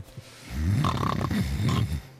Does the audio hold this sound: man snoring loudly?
yes